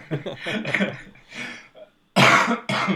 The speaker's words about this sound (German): ich, ich muss die ganze Zeit husten und getraue mich nicht, ja, ja, durch die Umstände, in denen wir sind. Ja. Jetzt nicht am, ähm, beim Podcast am, ins Mikro zu husten.